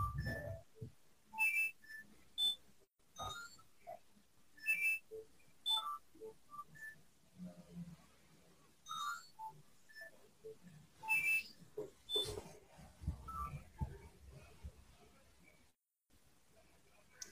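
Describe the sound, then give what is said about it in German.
A telephone rings in short, repeated electronic bursts of bright, high-pitched tones at a steady interval, with faint voices and background noise between the rings. “Jetzt klingelt hier das Telefon.”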